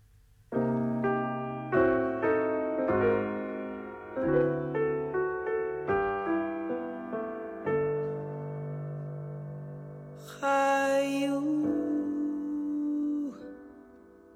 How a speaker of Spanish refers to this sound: Vamos a escuchar entonces esta musiquita